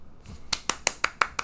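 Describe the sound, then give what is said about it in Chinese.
A short burst of hand clapping as the speakers applaud themselves: about six sharp, crisp claps in an even, fairly quick rhythm, with no talking over them. “自己给自己掌声。”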